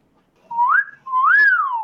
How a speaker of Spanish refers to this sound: Pues Barton es un, mina del Himalaya. Es un, son unos estorninos de Asia que los traían antiguamente ah, porque tenían la habilidad de, hablar,